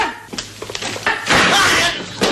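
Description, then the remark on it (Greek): A cluster of quick, fairly loud knocks on a door, irregularly spaced, then a longer, rougher burst of thumping noise and one final hit near the end. “Είναι η ιστορία που μας χτυπάει την πόρτα.”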